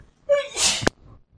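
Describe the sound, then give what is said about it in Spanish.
A single sharp sneeze with a quick rising inhale, a hissing burst and an abrupt clipped finish, heard alone against a quiet background. “Salud.”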